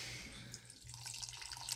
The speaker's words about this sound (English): You just pour that in a fucking Slurpee? Yeah, Red Bull mixed with uh, actually this random energy drink. I'm not sure of what it is.